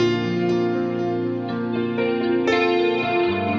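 Marco Parisi plays a single Rise keyboard controller, a 49-key controller with five-dimensional keys, generating different computer-produced sounds: sustained, layered synthesizer chords with a thick, processed timbre shift through several changes, with sharp note attacks around the middle and a brighter entry near the end. There is no speech.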